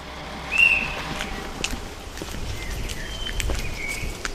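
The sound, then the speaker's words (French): Scattered bird calls and short chirps ring out over a steady outdoor hum, with a few light rustles and taps in between, at the Poldi industrial wasteland in Kladno, where machines sounded for over a century. “Nous sommes arrivés dans la friche, et là où le bruit des machines a résonné pendant plus d'un siècle, ce sont les oiseaux que l'on entend.”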